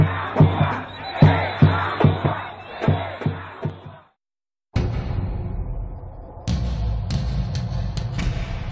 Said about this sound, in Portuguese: Brasil, 6 de junho de 2013 porque um país inteiro gritou o slogan de uma marca.